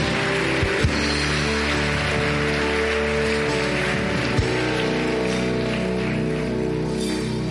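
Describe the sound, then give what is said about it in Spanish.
A crowd applauds steadily, a dense, crackling wash of clapping that holds at an even level throughout, with sustained musical tones underneath. “Dale un aplauso, dale un aplauso, dale un aplauso.”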